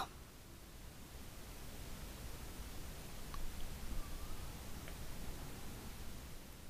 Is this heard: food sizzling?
no